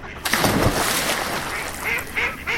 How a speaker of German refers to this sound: Das sind keine Nilpferde, sondern Enten. Seit wann können Nilpferde wegfliegen?